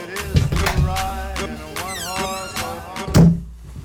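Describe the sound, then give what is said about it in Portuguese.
A door shuts with a single dull, heavy thud near the end, rising above a layer of sustained tonal music that plays throughout. “Triste e desavisado ele seguiu pela porta”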